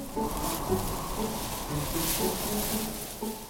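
Wind rustles steadily through tree leaves, a continuous soft hiss that swells and eases slightly, with faint low murmurs in the background.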